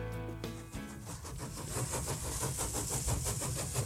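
A train locomotive starts up, a brief tonal blast giving way to a steady rhythmic chugging that holds fairly loud, with no voices.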